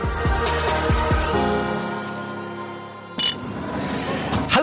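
Two people clink glasses of Warsteiner beer together in Hamburg, giving a sharp, bright knock followed by a lingering glassy ring, with some rattling and handling noise around it and no talking.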